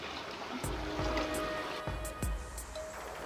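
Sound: flowing water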